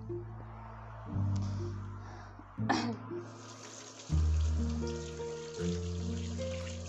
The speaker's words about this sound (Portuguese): Ok, louça lavada.